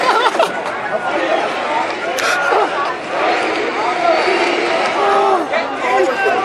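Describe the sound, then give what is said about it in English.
A large crowd of about a thousand people at a game roars and cheers continuously, a loud, dense wash of many voices shouting at once, holding steady for several seconds with small swells and no single voice standing out. “this crowd is on fire right now, and it's not the speakers at all. It's the crowd.”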